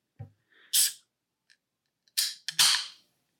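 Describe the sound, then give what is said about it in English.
A bottle of root beer cracks open with a sharp pop and a rush of fizzy hiss, then a couple more quick pops and hissing bursts follow, with no talking. “That's a very that's a very satisfying sound.”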